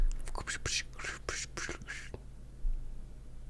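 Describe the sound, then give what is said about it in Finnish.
A voice imitates a rattling cola can with a quick run of about eight breathy, clattering hisses over two seconds, fairly loud, followed by a low steady hum. “Tällainen, mistä, mistä toi tulee? Se on kolatölkki.”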